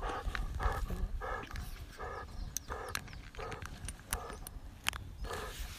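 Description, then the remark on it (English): A big, strong female dog pants heavily and rhythmically, with quick, steady breaths and small scuffling and clicking noises as it moves about. “She's a big, strong dog.”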